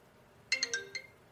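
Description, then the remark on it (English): A phone ringtone plays a quick run of four bright electronic notes, the last one slightly separated, fairly quiet and heard alone over a faint background hum, as the speaker's phone rings during a live show. “That's my phone.”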